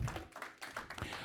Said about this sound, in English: Little Love Church, Philadelphia. Amen. Praise God. One more time, let me hear my remnant clap. Put your hands together.